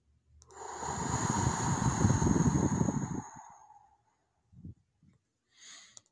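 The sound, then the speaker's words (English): A long, slow, gentle breath blown out through pursed lips in a guided breathing exercise, a breathy rushing hiss with a faint whistling edge that swells, holds for about three seconds and fades, followed by a couple of soft low puffs. “Gently breathing out like you're blowing through a straw.”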